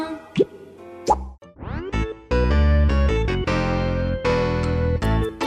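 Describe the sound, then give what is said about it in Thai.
Bubbles blown by a fish, blowing and popping: a string of quick, bright plops and bloops, one rising swoop, then a denser run of pops over a loud, sustained musical backing, with no talking. “ฟองปุดปุดปลาว่ายน้ำดำปุดปลาเป่าฟองปุดปุดเป่าฟองปุดปุดปองปองปองปุดปุดปุดปองปองปอง”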